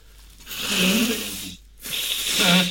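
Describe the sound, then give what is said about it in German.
Two loud nose blows into a tissue, each a rushing, breathy burst with a low honking flutter, separated by a short pause. No talking. “Warte mal, ich muss mal kurz putzen.”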